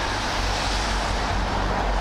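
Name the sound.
street traffic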